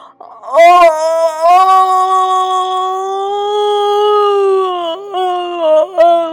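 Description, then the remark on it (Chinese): A storyteller imitates the little pigs' big, drawn-out yawn as they get up: one long, loud, wavering 'aaah' that sags slightly in pitch, followed by a couple of short voiced breaths at the end. “就在这时，小猪们打着大大的哈欠，爬了起来。”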